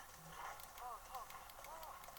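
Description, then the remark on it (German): Horse hooves in a video game clip-clop in a steady, even rhythm, a run of crisp knocks in quick succession, with faint murmuring voice-like tones drifting underneath. “Ich sneak mir erstmal dieses hässliche Pferd.”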